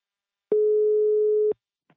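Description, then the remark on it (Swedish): A single telephone ringing tone while calling the company Imbacare: one steady, clear one-second beep that starts and stops abruptly, heard alone with no voices and a brief faint tick just after. “Nu tar vi en kort paus och ringer upp min samarbetspartner Imbacare”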